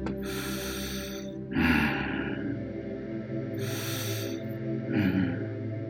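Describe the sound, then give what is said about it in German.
Slow, deep breathing of a bear, heavy and close, with about four long breaths alternating in and out over a steady low drone. “Du kannst spüren, wie dein Freund der Bär ruhig und tief atmet.”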